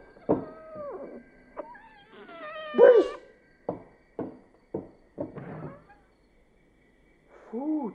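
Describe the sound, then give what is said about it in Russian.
A cat meows repeatedly, a string of short, rising-and-falling cries with one louder, drawn-out yowl near the middle, then a pause before a final plaintive meow. “Почему эта кошка уверена, что я всегда ловлю рыбу именно для нее?”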